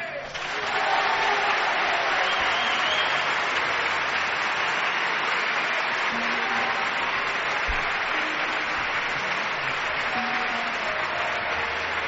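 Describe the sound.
A live audience applauds steadily and loudly for about twelve seconds, a dense wash of clapping with a faint murmur of crowd voices mixed in.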